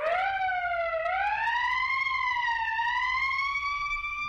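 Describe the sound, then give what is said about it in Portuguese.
A loud police siren wails steadily, its pitch sliding slowly up and gently dipping over a few seconds, heard on its own over a faint low rumble. “manda o gordinho botar aquela sirene pro cara aí, a sirene.”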